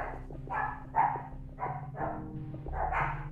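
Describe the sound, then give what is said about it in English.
Dogs bark in the background, five or six muffled, irregular barks spread over a few seconds, set against a steady low hum with no one talking. “That's security team in the background testing their barks because they're going on a walk today and they want to bark at this big dog that they saw at the park yesterday.”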